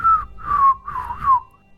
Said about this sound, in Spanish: Y silbo.